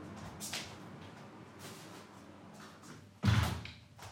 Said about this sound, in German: Äh, ich mache, glaube ich, echt das Fenster nochmal zu.